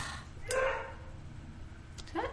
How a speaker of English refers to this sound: It's the dog man. It's the dog man, not my dog, different dog.